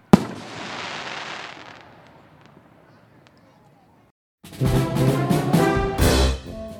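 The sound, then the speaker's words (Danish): Fireworks set off by children before the show has begun: a sharp bang sets off a hissing, crackling shower that slowly fades. After a brief quiet gap, a louder, denser barrage of fireworks erupts and keeps going. “Men de er allerede kommet til at starte det, før showet overhovedet er gået i gang.”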